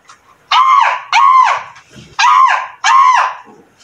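Crows cawing loudly, four harsh, raspy caws in two quick pairs with a short pause between them, each call about half a second long and fairly high-pitched. No one speaks.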